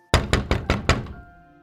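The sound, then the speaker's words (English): Five heavy, evenly spaced knocks pound on a front door in quick succession, loud, just before sunrise, followed by a short ringing decay into quiet. “And then just before the sun actually breaks the horizon, there's a pounding at your front door.”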